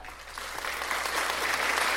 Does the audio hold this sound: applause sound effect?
yes